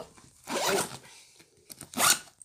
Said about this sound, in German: Gut, ich glaube, das wäre geschafft. Zahnbürste hast du auch. Dann Koffer zu.